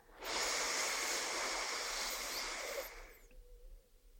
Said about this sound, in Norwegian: Nå kan du kjenne etter. Kanskje du klarer å forlenge, så puster du inn fire.